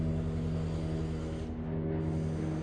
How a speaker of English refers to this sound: Okay, what the fuck? Helicopters, some guy drilling.